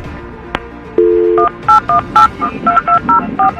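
A steady dial tone hums briefly, then telephone keypad dialing tones follow: roughly ten short, clear beeps at varying pitches, pressed in a quick, slightly uneven rhythm over a faint background hiss.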